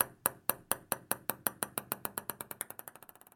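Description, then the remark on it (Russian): A timer's bright ringing pings repeat over and over, speeding up into a rapid, accelerating series of sharp metallic dings, signalling that a host's time in a debate round is over and the turn passes to the other host. Each one decays quickly, and no voices are present. “Вы услышите этот звук, когда наше время закончится, и ход должен будет перейти к другому ведущему.”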